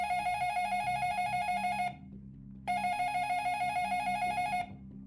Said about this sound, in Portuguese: Você, vocês chegam num condomínio, num condomínio, tipo, padrãozeira assim, tá ligado? Tu vai lá, tu toca o interfone do cara. Aí ninguém, ninguém responde.